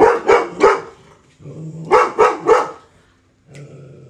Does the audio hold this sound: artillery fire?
no